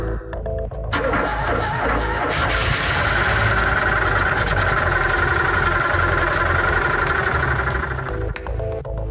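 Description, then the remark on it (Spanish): A Fiat 521 car engine runs with a steady, loud rumble and a rattly mechanical drone. It kicks in after a brief quiet start, holds constant, and eases off just before the end. “Después de 45 minutos de viaje en su Fiat 521 y ya afuera de la casa Kimball,”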